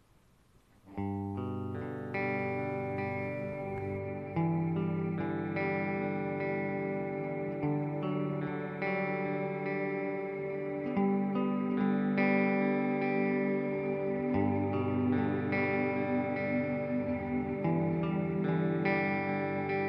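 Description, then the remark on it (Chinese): An electric guitar for post-rock with a digital delay effect and a Particle Verb reverb effect, notes ringing and smearing into a sustained, shimmering wash of chords. It starts after a brief quiet moment and stays steady and full, with no voices. “那我加了一个 digital 的 delay 效果，然后再加上一个 particle verb 的混响效果。”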